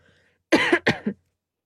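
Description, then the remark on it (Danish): Two quick coughs into the crook of an elbow, fairly loud, back to back with brief silence before and after, demonstrating how to cough into one's sleeve instead of one's hand. “Og så for eksempel, når du skal hoste eller nyse, så gør det i dit ærme i stedet for.”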